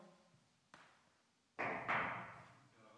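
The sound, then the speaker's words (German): Several knocks on a door, a lighter rap followed by two heavier, resonant thumps close together, each ringing out briefly against a quiet, slightly hollow background. “Er geht hin, klopft an die Tür”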